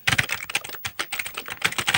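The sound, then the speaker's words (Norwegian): Rapid typing on a soft, mushy original Amiga 500 computer keyboard made by Mitsumi: a steady run of muffled keystrokes with dull thuds and few crisp clicks, no voices. “Du kan jo høre på tastelyden når jeg trykker.”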